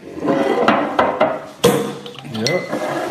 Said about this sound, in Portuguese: Eu vou te ensinar a abrir a garrafa, peraí.